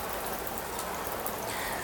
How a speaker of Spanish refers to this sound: Hasta que de repente una ligera lluvia de verano comienza a rodar sobre nuestros invitados.